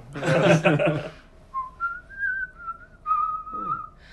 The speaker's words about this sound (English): Oh, yeah. yeah. That's pretty nice. a good whistle.